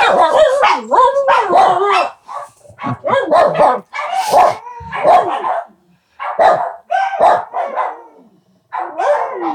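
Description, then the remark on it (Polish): Several dogs in a house bark and yip in a continuous chorus of overlapping bursts with brief pauses, loud, with a bit of laughter mixed in. “Dzień dobry też e, wszystkim zwierzętom w tym domu. One odpowiadają, odpowiadają właśnie. Tak, słyszymy.”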